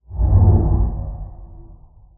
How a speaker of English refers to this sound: So let's take a quick break here. That's going to sound like about a two second audio transition.